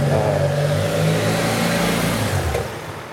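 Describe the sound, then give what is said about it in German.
A car drives past on the narrow Schützengasse, a main access route from the south into the city centre of Weimar, Germany, its engine humming loud and steady before easing off slightly near the end, with no voices. “Wir stehen in der Schützengasse.”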